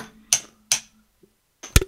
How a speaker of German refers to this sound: Also jeder Gegenstand, ob ich jetzt, wenn ich jetzt auf meine Tastatur mit dem Stift hier haue, hört sich das ganz anders an, als wenn ich äh, auf den Tisch haue.